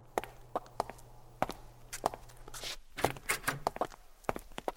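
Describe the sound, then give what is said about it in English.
Footsteps of someone carrying a bunch of scripts walk down a hallway in corporate offices toward Ms. Major's office, in a steady rhythm of a dozen or so sharp heel clicks over a low background hum, with a brief rustle midway through. “Look who's on his way down the hall heading to Ms. Major's office with the latest bunch of scripts in hand.”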